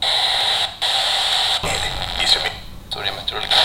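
A radio without preset channels is scanned across stations, hissing static broken by abrupt jumps and snatches of garbled broadcast sound, steady in loudness.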